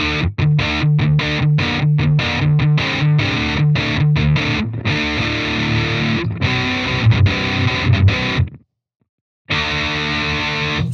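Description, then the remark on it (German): A loud, distorted electric guitar played through a Duo-Verb amplifier with a distortion pedal in front of it, with reverb, plays rhythmic, choppy chords that give way to ringing, sustained notes, then cuts out briefly before resuming. No one speaks. “Ähm, das ist immer noch der Duo-Verb, aber mit einem Distortion davor.”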